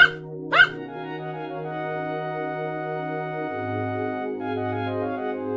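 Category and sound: animal, puppy barking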